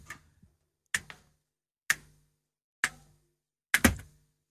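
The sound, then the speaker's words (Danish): Sharp finger snaps ring out alone at a steady pace of about one per second, five crisp bright clicks in all, a couple of them followed by a quick second snap. “Nu knipser han.”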